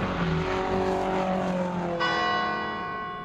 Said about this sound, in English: Boys, can you hear that? It's the death bell.